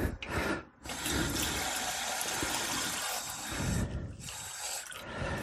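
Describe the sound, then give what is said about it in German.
Water pours steadily from a tap into a small pot, half a liter for cooking syrup, a loud, continuous rushing splash with a brief break near the start, no voices present. “Wir nehmen jetzt erstmal einen halben Liter Wasser.”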